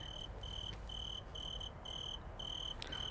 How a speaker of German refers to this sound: Das ist kein Klingelton, Leute, das ist wirklich eine Grille.